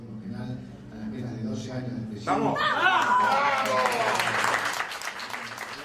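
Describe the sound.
A group of friends bursts into loud cheering and excited shouting, with applause and laughter mixed in, after a few seconds of lower murmuring voices.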